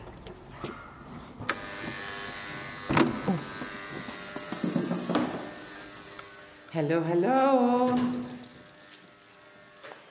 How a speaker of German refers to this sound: Hier steht's ja. Moment, ich klingel.